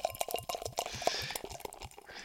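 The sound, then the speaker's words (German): Beer pours into a glass with a rapid run of gurgling glugs and splashy clicks, then a rising fizzy hiss as the foam builds, steady and moderately loud with no talking. “Und hinein ins Glas.”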